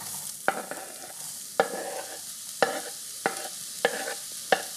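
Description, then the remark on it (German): Onions sizzle steadily in a hot frying pan as they are sautéed, a continuous crackling hiss broken by six sharp scraping knocks as they're stirred at a loose, irregular pace. Fairly loud, with no talking. “Nachdem bei mir jetzt ja eben das schon ziemlich warm ist, schmeiße ich auch schon Zwiebel hinein.”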